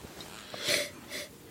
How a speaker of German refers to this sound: Ich habe gerade fürchterlich niesen müssen, weil bei mir die Allergie wieder losgeht.